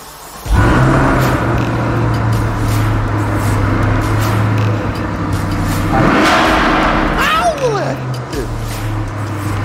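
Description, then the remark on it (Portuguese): A car, bought at Vanguard in Belo Horizonte, is started; its engine roars to life and settles into a deep, steady rumble, swelling in a rev partway through, with people's excited voices heard briefly near the end. “Liga, liga, liga, liga ele pra gente. O barulho aí. é incrível, cara.”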